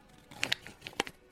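A liégeois dessert cup lid is peeled open: a quick series of dry crinkling, tearing crackles, a few sharp bright bursts over about a second, fairly quiet with no voices.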